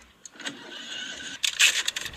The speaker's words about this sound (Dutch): Goed, even kijken of de motor start. Zullen we dat proberen?